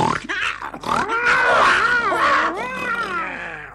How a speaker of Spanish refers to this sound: El oso y el lobo casi se comen a Leonardo, pero se empezaron a pelear por comérselo cada uno.